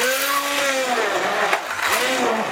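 A standard hand blender whirs steadily as it purées about half a litre of tomatoes, its motor pitch sagging and rising, with a dense, wet grinding noise throughout. Fairly loud, no talking.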